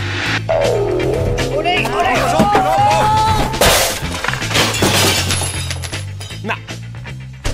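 A drawn-out, loud crash of someone tumbling over with a radio transmitter on his back: clattering, smashing and breaking glass piling up over several seconds, with yelping cries mixed in and a final bang near the end.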